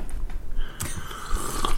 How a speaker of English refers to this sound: Could you hear me do sips of tea? Yeah.